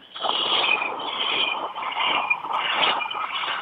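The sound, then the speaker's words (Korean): A person imitates a cicada with a steady, buzzing, high-pitched drone that pulses slightly in waves, holding fairly loud and continuous throughout with no words spoken. “아 하나는 이제 매미 한번 해볼게요.”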